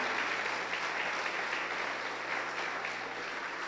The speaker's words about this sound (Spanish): Dele un aplauso fuerte al Rey de Gloria en este día.